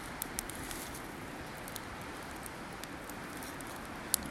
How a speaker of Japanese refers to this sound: 河原の脇ですね、えー、で焚き火をしているので川の音がですね背音がすごく聞こえてるんじゃないかなというふうに思います